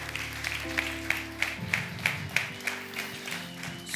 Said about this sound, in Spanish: Dale un fuerte aplauso a tu Dios en el día de hoy.